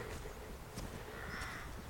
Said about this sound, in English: And the sound of crows over winter fields. It's one of the great evocative sounds of, win- of winter in Britain.